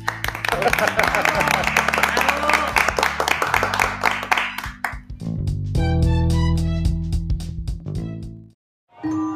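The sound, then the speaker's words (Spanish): A studio audience applauds loudly for about five seconds going into a commercial break, a dense wash of clapping, before it gives way to a bright musical jingle with sustained chords and a brief pause. “Aplauso para ustedes.”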